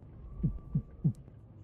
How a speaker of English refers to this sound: coming from inside of the cart. I see. A heartbeat.